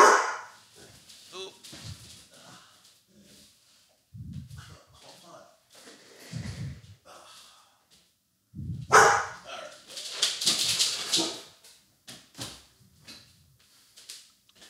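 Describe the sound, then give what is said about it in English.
A dog shut in a room barks in sharp, scattered bursts and whimpers between them, with muffled thumps and faint voices in the background. “I, I, closed my dog in this room or my roommate's dog, not even knowing that she was in here.”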